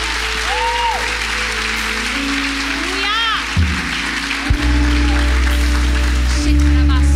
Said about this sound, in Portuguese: Aplaude ah, com gosto, vai.